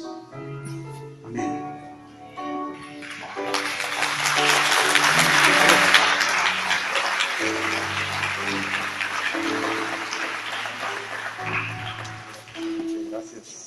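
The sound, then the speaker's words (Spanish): Sustained applause from a church audience for the speaker who brought the message swells up after a few seconds of soft keyboard music and carries on steadily to the end, the music still playing underneath the clapping. “Un fuerte aplauso, Señor, por que nos trae esa palabra.”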